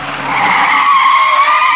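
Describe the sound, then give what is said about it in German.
A car brakes hard to a stop, its tires letting out a loud, sustained high-pitched skid squeal that holds steady for nearly two seconds, with no voices. “trat auf die Bremse und”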